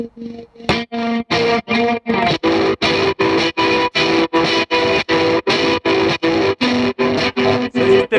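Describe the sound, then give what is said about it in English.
A distorted electric guitar chord is chopped by a hard tremolo effect into rapid, evenly spaced pulses, about three per second, loud and steady throughout with no voices. “And it's like you got the the plants, like bringing it in and out, whatever, and then and then the tremolo.”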